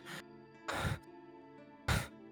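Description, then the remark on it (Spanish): A man's heavy, agitated breathing, three loud breathy bursts at uneven intervals, gasping inhales and harsh exhales with short pauses between them, no talking. “Ves cómo estás eh, respirando muy agitadamente.”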